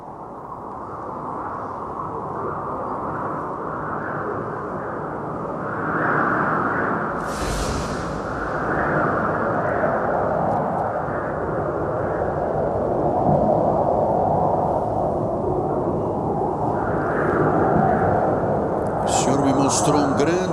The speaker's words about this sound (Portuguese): temporal, um grande tornado, ventos fortes, ondas que se levantavam, raios e trovões, exatamente conforme diz o livro do Apocalipse. E ele me mostrou após este grande vendaval com trovões, com raios.